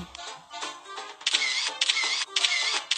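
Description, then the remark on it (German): A voice mimics camera shutter clicks for photos being taken, making a series of sharp, breathy clicking bursts in quick succession, fairly loud, with no other talking. “Und jetzt muss ich die Kamera machen.”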